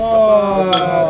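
glasses clinking

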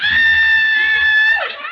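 person screaming

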